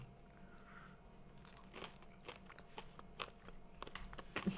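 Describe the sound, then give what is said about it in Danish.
Someone bites into a hard candy and chews it, with a series of sharp crunches and crackles growing more frequent toward the end, no talking. “Okay, jeg prøver bare at tage en bid af den, af hele lortet.”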